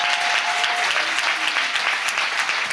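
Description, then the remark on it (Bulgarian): An audience applauding steadily, a dense crackle of many hands clapping at once with no pauses, sustained and fairly loud throughout, with no talking over it. “О, ако ръкопляскаш, ръкопляскаш, като че ли си навярваш.”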